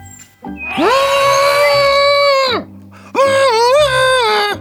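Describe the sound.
Someone trumpets like an elephant in two long, loud, brassy blasts, the first rising and held for about two seconds, the second wavering, with a short pause between.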